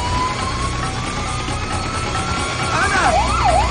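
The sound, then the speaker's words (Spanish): An ambulance siren wails over a low traffic rumble as the ambulance approaches at high speed, starting as a steady rising tone and then swooping up and down rapidly as it grows louder and closer. “La pequeña no se da cuenta de que una ambulancia se aproxima a toda velocidad.”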